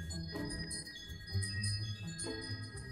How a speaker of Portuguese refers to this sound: Desculpa, gente, é o meu sininho de vento. Tá ventando tá, tá, a, aqui.